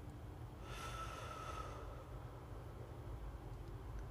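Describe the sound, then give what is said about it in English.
A single deep breath pushed out through the mouth during a deep-breathing exercise, breathing in through the nose and out the mouth: a soft airy whoosh lasting about a second over a low steady background rumble, with no talking. “Again, in your nose and out your mouth.”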